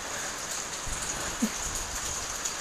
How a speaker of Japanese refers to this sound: ずっと外開けてるとやっぱ寒いですね雨の音を聞きながら話そうと思ってたんですけど寒くなってきました